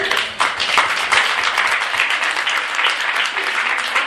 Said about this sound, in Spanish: Ok, perfecto. Le damos un aplauso.